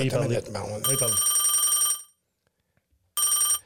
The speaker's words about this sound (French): le téléphone, il, n'arrête pas de sonner, là